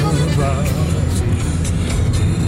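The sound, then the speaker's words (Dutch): Steady low engine and road rumble from inside a moving car carrying a bicycle in the back, driving during a storm, loud and continuous, with a faint tonal sound drifting briefly through the middle frequencies. “We zijn dus nu in de auto gestapt met de fiets achterin.”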